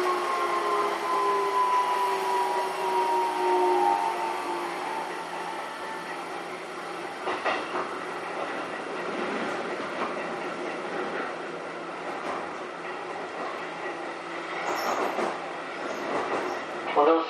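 A Keikyu New 1000 series (1800 subseries) electric commuter train running steadily between Shin-Zushi and Kanazawa-bunko, with a rising motor whine early on, rumbling wheels and occasional rail clatter, heard from inside the carriage at a moderate, continuous level.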